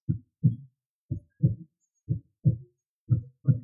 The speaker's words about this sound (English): He cradles her head, bracing her neck as he lays his ear against her chest, thumb idly caressing her cheek. Breath bated, he finally finds her heartbeat in her lungs.